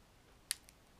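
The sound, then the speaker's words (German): A paper White Rabbit candy wrapper tears with a quick, crisp rip, one sharp crackle followed by a fainter second one, against a quiet background with no voices. “Ach ja, ich höre das Papier reißen.”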